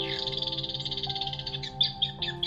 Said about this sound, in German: Doch dann beginnt das Eichhörnchen, das oben auf einer dicken Kastanie sitzt, laut anzukeckern.